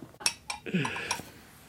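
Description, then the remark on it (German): Several small water glasses holding homemade mead clink together in a quick toast at a mead tasting, a few bright chimes, with some voices and rustling underneath. “Zum Wohl. Nicht ganz stilecht in kleinen Wassergläsern, aber das tut dem Geschmack keinen Abbruch.”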